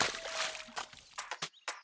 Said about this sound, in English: She splished and splashed all the way down.